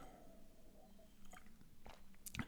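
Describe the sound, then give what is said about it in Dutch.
Someone takes a sip of water: quiet, wet mouth sounds build to a few sharp clicks and a swallow near the end, with no talking. “Ik ga even een slokje water drinken”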